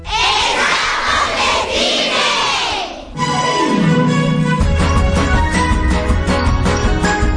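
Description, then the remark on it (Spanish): A large crowd roars a sustained battle cry that grows ever louder for a few seconds, opening a show, then a swooping sound gives way to loud music with booming bass and bright sustained tones. “el espectáculo, nuestro show, empieza a la de ya, justo después de un grito de guerra cada vez más potente.”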